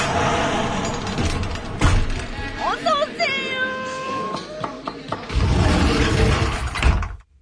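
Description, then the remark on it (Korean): A door lock clicks and rattles, then the door creaks open with a drawn-out squeal from its hinges, against a background of low rumbling noise. “들어갑시다. 문 열어요.”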